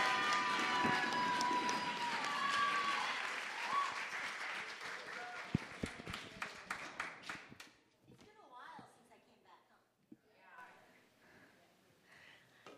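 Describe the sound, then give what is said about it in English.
A church audience breaks into loud applause with cheers and whoops to welcome the pastor before a sermon, the clapping dense and steady before tapering off to scattered claps and murmuring voices. “So please uh, give a raucous, what's the word I'm looking for? Raucous, well, ruckus, welcome”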